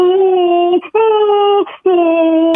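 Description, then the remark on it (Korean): A woman imitates a motorcycle engine with her voice: three sustained, steady droning tones, each close to a second long, separated by short breathy pauses. Loud, with no other sounds. “오토바이 소리.”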